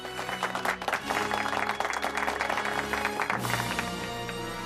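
Steady applause from an audience greeting a guest, dense rapid clapping that holds at an even level for several seconds, with music playing underneath.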